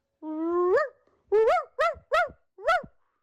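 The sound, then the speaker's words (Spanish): A small dog lets out a drawn-out whine, then four short, high yelping barks in quick succession, fairly loud, with no one talking. “Es un perrito, mira.”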